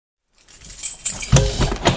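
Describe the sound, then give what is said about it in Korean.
A master key rattles and scrapes in the lock of a second-floor single room, followed by a sharp metallic clack as the latch turns and the door is unlocked. No one speaks. “마스터키로 2층 1인실의 문을 열었다.”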